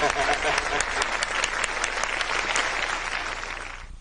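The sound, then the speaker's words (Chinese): An audience at a charity auction breaks into sustained applause, a dense wash of many hands clapping at a steady loudness for about four seconds before tapering off slightly at the end. “鼓掌啊你们！”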